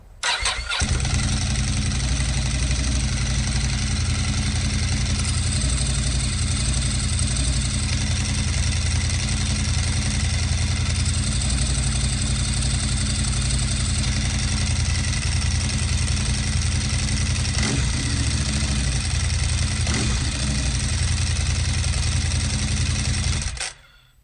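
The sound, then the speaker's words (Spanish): A motorcycle engine fires up and settles into a steady, loud idle, rumbling without pause for about twenty seconds before cutting off abruptly. No voices are heard. “arranca y dale a la pandereta que nos vamos.”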